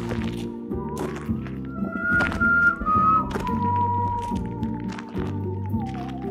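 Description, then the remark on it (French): A handsaw played as a musical saw by Marcel Perrin sings a wavering, eerie melody, its smooth tone sliding between notes over steady chordal accompaniment with a pulsing low end; no one speaks. “Tiens, écoute, là, c'est Marcel Perrin là, avec son égoïne.”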